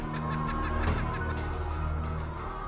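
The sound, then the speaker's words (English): Many battery hens cluck and squawk together in a dense, continuous chorus inside a crowded battery farm shed in New Zealand, with a steady low mechanical hum running underneath. “All in undercover footage gathered in a battery farm in New Zealand by animal rights activists.”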